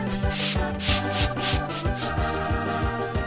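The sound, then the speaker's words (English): Ducks scrubbing and sweeping: brisk, rhythmic strokes, roughly eight raspy swishes at a steady pace, moderately loud, with a low, tuneful musical bed running underneath and no talking. “Duck scrub and sweep.”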